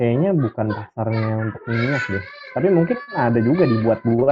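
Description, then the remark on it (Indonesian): A neighbor's child cries in the background with wavering, high-pitched wails that come and go while adults keep talking over it. “muncul ya maaf anak tetangga”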